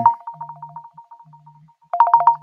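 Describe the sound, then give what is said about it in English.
A phone ringtone for an incoming call: rapid, evenly spaced electronic tone pulses that fade softer, pause briefly, then return loud, with a faint low hum underneath. “She's calling.”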